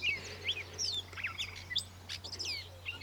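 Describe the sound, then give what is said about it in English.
Many birds sing at once in a dense dawn-style chorus, overlapping chirps and whistled phrases coming from several directions, moderately loud over a steady low hum, with no voices. “And one of my tracks has enough distance between them that you can actually hear individual singers and the other is the overwhelming mass of just joyousness mm.”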